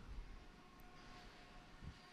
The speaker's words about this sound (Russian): А, так, у меня тут поезда ездят в офисе, если что. Так что не обращайте внимания.